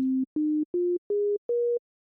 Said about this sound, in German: Um die Arbeit zu beschleunigen, hat er dann einen smarten Trick gefunden. Er schickte fünf nacheinander gespielte Sinustöne